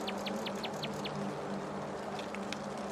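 A nightingale sings in a forest as day turns to night, a rapid series of six bright, repeated notes, then falls quiet before a few softer calls, all over a steady hum of outdoor ambience.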